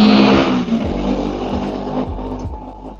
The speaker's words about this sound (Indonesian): bentar, kalian dengar nggak suara motor? Dengar.